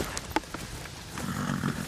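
A few hoof clops from a farmer's two horses, Anni and Beke, moving about, followed by a low, rumbling whinny or snort, with no one talking.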